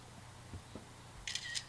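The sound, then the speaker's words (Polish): An iPod's front camera shutter click sounds once, triggered by pressing the volume-up button, a crisp, bright two-part snap near the end, preceded by a couple of soft handling taps against a quiet background. “naciskam klawisz do zgłaśniania, który to klawisz jest y, tym samym tak. migawką aparatu.”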